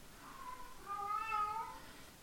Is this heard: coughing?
no